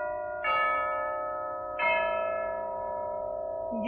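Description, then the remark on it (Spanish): Church bells toll slowly, two full strikes a little over a second apart, each ringing out with a long, resonant hum, and a third strike just beginning as the sound ends. “Ya doblan las campanas, se llevan a mi amor”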